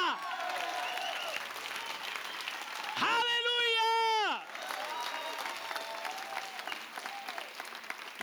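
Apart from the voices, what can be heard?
audience applause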